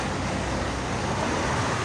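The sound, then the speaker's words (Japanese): A steady, dense roar of street traffic in Rome, with many small Smart cars driving, fills the air, an even wash of engine and tire noise with no single vehicle standing out and no voices. “でローマしかまだ来てませんけどこっちって結構本当にスマートという車がめっちゃ走ってますね”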